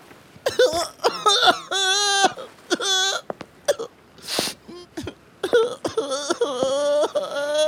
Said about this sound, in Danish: Hvorfor græder du?